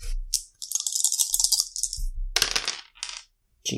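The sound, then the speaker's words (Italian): Four dice clatter and tumble across a hard table surface in a rapid rattling burst, with small hard clicks bouncing and settling, loud, with no voices. “Oh, sono ancora comunque 4 dadi.”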